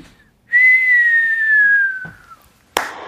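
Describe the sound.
A person whistles a long, trembling tone imitating a firework, like a dud shell, slowly sliding downward and ending in a short burst of breathy noise as if imitating the bang.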